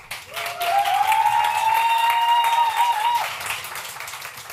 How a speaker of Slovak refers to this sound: Dáme im potlesk znova.